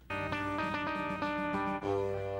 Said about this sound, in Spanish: Ya no duplicar lo que estaba haciendo la guitarra rítmica, sino meter estos, estos ambientes, estas texturas. Exacto. Y que son hechos con la guitarra, ¿no?